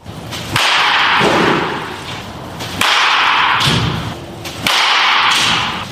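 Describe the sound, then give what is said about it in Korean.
Three sharp, loud cracks of a handcrafted wooden baseball bat hitting a ball, spaced about two seconds apart, each followed by a brief ringing tail. No voices. “네, 이 나무 배트를 타격했을 때 울림과 소리 그리고 타격감은 어떻게 되는지 궁금해하실 것 같아서 그 소리 한번 들어보시고요.”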